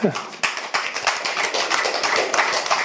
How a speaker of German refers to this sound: Haltendes Klatschen, okay, ich weiß, wer das Publikum ist.